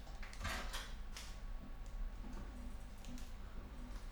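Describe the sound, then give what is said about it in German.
A video game door swings shut with a few quick clunking, rattling knocks early on, then settles into a low, steady background hum with faint scattered ticks. “Ah, klar, natürlich geht die Türe zu.”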